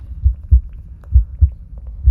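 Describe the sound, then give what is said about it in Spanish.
A deep, muffled heartbeat thumps in steady lub-dub pairs, about three beats across the stretch, low with a faint hum beneath and no voices. “Visualiza que esa energía en cada latido recorre primero”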